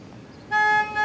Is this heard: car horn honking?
yes